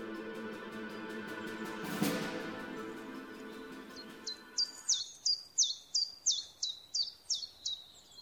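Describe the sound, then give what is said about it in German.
Forest ambience heard from in front of a tent near an old quarry: a steady hiss and a brief burst of noise, then a bird breaks in with a run of about ten high, evenly spaced chirps that rise in loudness. “Satt und erschöpft setzt sich Fritz vor sein Zelt und lauscht den Geräuschen des Waldes.”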